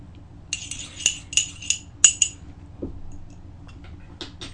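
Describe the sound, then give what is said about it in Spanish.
A cup is handled with a quick series of five or six light, high clinks, followed by a soft, brief sip of bitter coffee that had cooled a little, and a faint tap, with no talking. “Y bueno, me voy al segundo tema, pero antes me voy a dar otro sorbito de café”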